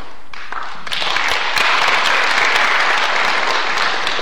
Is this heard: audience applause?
yes